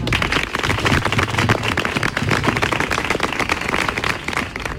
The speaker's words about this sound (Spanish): Así que yo os pido a todos un aplauso para ellos.